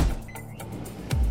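Short burst of sounds from a set of GE kitchen appliances for keeping food fresh and dishes clean: a steady mechanical hum with a faint high whine, punctuated by a couple of sharp clicks or clunks, moderately loud.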